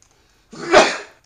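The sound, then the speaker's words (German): A single forceful sneeze bursts out after a moment of silence, swelling quickly and trailing off with a breathy tail. No one speaks. “Vom Niesen. Ich habe genießen.”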